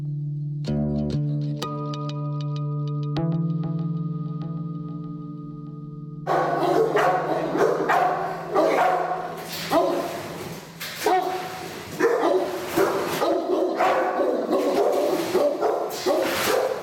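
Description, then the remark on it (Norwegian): A steady, droning musical tone gives way after a few seconds to loud, repeated barking from Ivan, a seized dog in a cage at a dog boarding kennel who lunges at anyone approaching, rapid and agitated, continuing in uneven bursts to the end. “Men ifølge rapporten hans gjør Ivan nå utfall mot alle som nærmer seg buret.”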